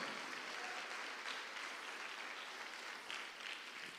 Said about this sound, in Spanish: Dale palma fuerte al Señor.